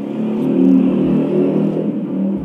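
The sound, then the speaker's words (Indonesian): A motorbike engine drones loudly and steadily as it passes by, its rumbling revs rising slightly midway and easing off toward the end, with no talking. “seperti biasa ada motor lewat.”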